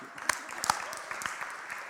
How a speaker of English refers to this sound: She's not here, so I'll have to tell her you clapped for her.